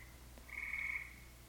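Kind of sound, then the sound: animal, frog croaking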